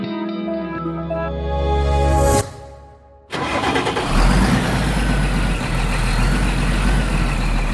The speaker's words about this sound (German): Dieses Geräusch kennen wohl die allermeisten von Ihnen. Ein Diesel-LKW startet. Dieses Geräusch gehört aber zu einer vermutlich aussterbenden Spezies, vielleicht noch nicht morgen, aber wahrscheinlich eben doch in absehbarer Zeit.